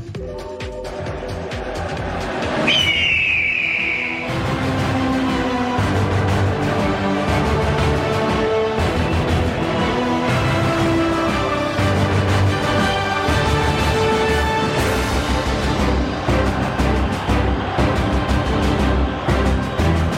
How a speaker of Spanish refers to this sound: se nota que esa presentación la hizo un americanista con el sonido del águila.